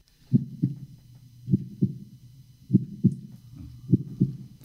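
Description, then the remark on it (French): A mother's muffled heartbeat, heard from inside the womb, thumps steadily in paired beats, lub-dub, about four pairs over the span, beneath a low, whooshing internal rumble. “Eh oui, c'est la première chose qu'on entend, les battements du cœur de sa mère.”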